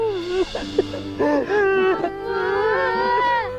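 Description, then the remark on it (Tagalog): A child sobs and wails, the crying rising and falling in unsteady, quavering bursts that run almost without pause for a few seconds; the child is startled on finding the long-sought father standing behind them. “Nakagulgul niya eh.”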